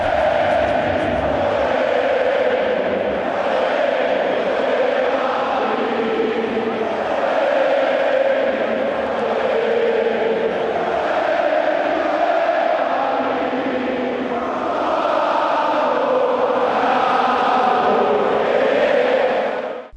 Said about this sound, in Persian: بریم با جو واندا متروپولیتانو همراه بشیم بشنویم صدای هواداری اتلتی رو